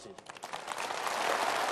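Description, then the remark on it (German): Audience applause for Cameron's guarantee programme, which encourages people to borrow from banks to buy homes, starts as a few scattered claps and quickly thickens into a dense, steady wash of clapping that grows slightly louder and holds to the end. “Applaus für ein Garantieprogramm, das nun tatsächlich in Kraft getreten ist.”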